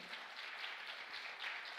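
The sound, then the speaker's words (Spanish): A crowd breaks into steady, dense applause, many hands clapping together in a continuous wash of sound that holds at an even level for about two seconds, with no one speaking. “Vamos, dale un aplauso fuerte.”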